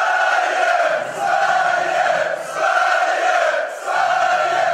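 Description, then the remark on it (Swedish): A supporters' section cheers and chants loudly in sustained rhythmic waves, the roar briefly dipping about every second and a half before surging again, with no single voice standing out. “Får jag höra klacken?”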